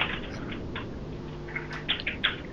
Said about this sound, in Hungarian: Nem hallok, már valaki kurvára gépel. Hát. Továbbra se hallom, mert valaki még mindig kurvára gépel.